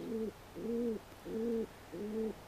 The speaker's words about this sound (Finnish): Tämän vuoden ensimmäisen viikon luontoäänen kunnia on annettu kesykyhkylle eli pululle.